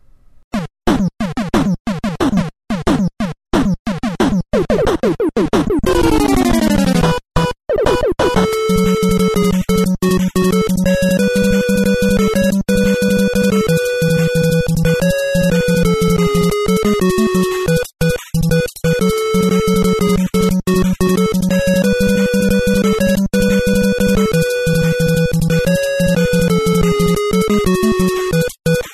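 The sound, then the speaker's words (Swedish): A video game music track plays loudly on its own, opening with a rapid cascade of rising tones before settling into a steady, bright melody over a pulsing bass line with sharp rhythmic hits. “Alltså, ta bara den här låten till exempel.”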